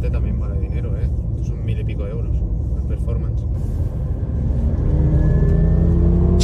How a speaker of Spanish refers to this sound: ¿Lo habéis escuchado? Mira el latigazo que pega ahí, eh, es muy heavy eso, eso eh, vamos, eso yo, a mí me daría miedo que parta, que rompa ahí el diferencial y salga volando. Le pega unos latigazos de la hostia. Eso, eso, eso no es normal.